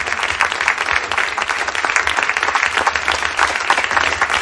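A group claps together in steady, dense applause after a toast with raised glasses, staying loud and even throughout and continuous, with no voices standing out above the clapping.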